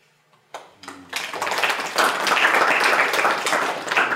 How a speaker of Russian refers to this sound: Давайте, если вам захочется, поаплодируем потом опытом руки не считаю, вы аплодируете непрерывно. Захлопывайте просто.